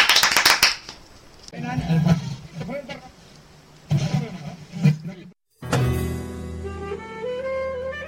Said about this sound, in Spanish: Pero ahora vamos a encender con un aplauso, mira.